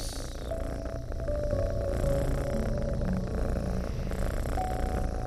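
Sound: cat purring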